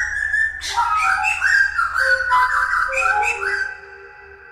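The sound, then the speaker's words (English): A thrush sings a run of clear, fluting phrases that rise and fall in pitch, fairly loud, then fades out, with a low steady hum underneath and no talking. “Okay, so that was his encounter with a thrush.”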